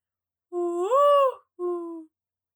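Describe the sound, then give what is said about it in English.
A person imitates a mourning dove with a soft, hooting coo: one long note that swells and bends upward, then a shorter, steady coo after a brief pause. It is moderately loud, with no other sounds. “All right, that's my morning dove.”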